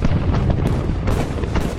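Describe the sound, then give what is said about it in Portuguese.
Artillery explosions as a sound effect: a dense, continuous roar of deep booms with sharper bursts breaking through. Loud throughout, with no voices. “Nossa, parece que é o fogo do inferno sendo lançado para nos destruir.”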